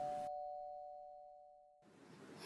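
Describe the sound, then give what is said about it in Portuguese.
A single doorbell chime rings out clearly, its bright tone sustaining and slowly fading over about a second and a half before louder room noise returns. “Separou seu carrinho de tecido, verificou todos os seus filhos e, quando ia pegando sua carteira, a campainha tocou.”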